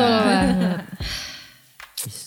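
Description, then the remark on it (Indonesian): A loud, deep breath drawn in, following a brief voiced, drawn-out vocal sound, with a couple of short breathy bursts afterward. “Tarik nafas tuh ngapain?”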